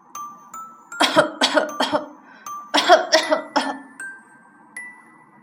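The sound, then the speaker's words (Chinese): Loud, harsh coughing from an elephant, Grandpa Elephant in a children's story, comes in two fits of about four rasping hacks each, separated by a short pause, while soft chiming tones hold steadily underneath. “终于有一天，象老爹又大声咳嗽了，而这一次他压根儿没有笑。”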